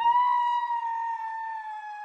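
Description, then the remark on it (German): A single quiet, high-pitched scream of fear sound effect, used to score a fear rated two out of ten, held steadily for about two seconds and sagging slightly in pitch toward the end, with no talking around it. “Also nicht besonders eine realistische Angst, darum tönt oder der Angstschrei, den wir da zur Wertung einsetzen, nicht besonders laut.”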